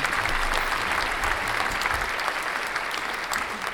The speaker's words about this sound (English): it is still worth a round of applause. It was quite a tough quiz.